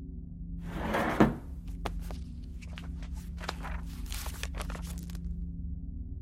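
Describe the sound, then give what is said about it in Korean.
A drawer of a small desk in a living room slides open with a brief scraping rush, followed by a scattered series of light knocks, clicks and rustles as a pen holder, an ink bottle and a thick quarto notebook are lifted out, with no voices. “그런 다음 서랍에서 펜대와 잉크병, 그리고 붉은색 뒷표지에 앞표지는 대리석 색깔인 두툼한 사절 노트를 꺼냈다.”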